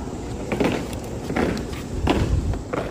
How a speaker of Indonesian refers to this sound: Panas terik mengiringi derap langkah pasukan pengibar bendera atau Paskibra di lapangan Wisma Indonesia, rumah dinas Duta Besar RI di Washington DC.